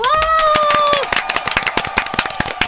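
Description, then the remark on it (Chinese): A small group claps in quick, uneven bursts, welcoming actors Ko Chen-tung and Vivian Sung of the film 月老 (Till We Meet Again), while a high, drawn-out cheering whoop rings over the first second, then the loud clapping carries on alone. “这一周的马克信箱不得了，这周马克信箱你看到了影像就知道哦，有大人物要来了，让我们掌声欢迎月老的柯震东与宋芸樺。”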